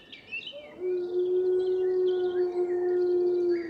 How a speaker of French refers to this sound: Nous sommes au cœur de la forêt de Valmaravel, au sud du Vercors, à plus de 1500 mètres d'altitude. La pénombre tombe doucement. Les oiseaux profitent des dernières lueurs du jour pour entamer leur chant du soir.